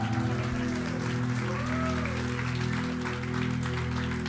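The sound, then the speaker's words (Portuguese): An audience applauds steadily for several seconds for the speaker's pregnant wife as she stands up, a dense, continuous patter of many hands, layered over sustained, droning keyboard chords that hold throughout. “Uma salva de palmas essa mulher linda.”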